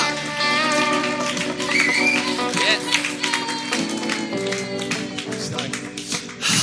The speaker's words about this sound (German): Und ich finde es Hammer, dass er heute Abend hier sein wird. Und ich möchte, dass wir ihm mal einen richtig, richtig, richtig fetten Tracks-Applaus geben und ihn willkommen heißen.